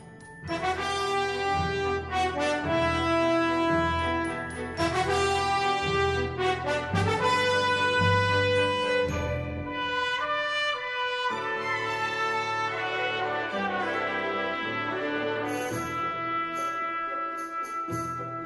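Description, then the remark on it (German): A song from the Ni no Kuni 2 video game soundtrack, the music that plays while traveling the overworld map, plays on its own: full, sustained orchestral chords with rich harmonics, changing every few seconds at a steady, fairly loud level, with no voices. “Dann hören wir jetzt mal rein, wa? In, in einen der Songs.”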